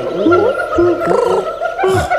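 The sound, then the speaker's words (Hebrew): A person imitates monkey calls, with a run of warbling, hooting vocal sounds that rise and fall in pitch, gurgling slightly, for about two seconds. “תעשה, קופים משהו רגע לא שישמע.”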